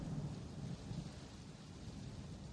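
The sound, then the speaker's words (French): A steady thunderstorm: dense rain hisses throughout while low thunder rumbles continuously underneath, fairly loud, with no voices. “Ou la tempête tout simplement.”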